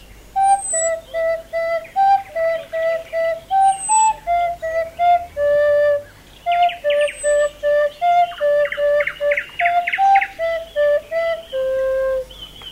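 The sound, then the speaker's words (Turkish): A recorder-like flute plays a simple, bouncy children's melody of short, evenly spaced notes, fairly loud, with no talking over it. “Aa flüt bu ya.”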